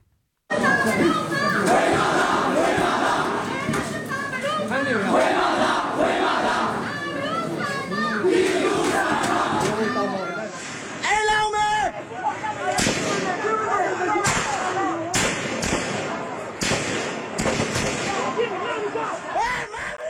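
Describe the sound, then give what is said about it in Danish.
A loud, dense crowd shouts and chants amid street chaos at violent demonstrations in Myanmar after the military coup, with sharp bangs and pops like gunfire or firecrackers bursting through the din in the second half. “Og vi kan da lige prøve at høre, hvordan det altså har lyttet under de her voldsomme demonstrationer.”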